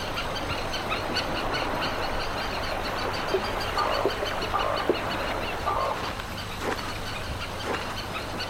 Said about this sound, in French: Au milieu de la localité déserte, un homme seul est en train de rénover une maisonnette. Avec sa génératrice et son marteau-piqueur, il fait un boucan d'enfer.